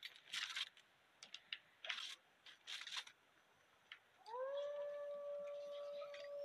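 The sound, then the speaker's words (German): A few short clattering bursts give way to wolves howling, long sustained overlapping howls that rise and hold steady, fairly loud, with no one talking. “Ernsthaft, jetzt kommen Wölfe.”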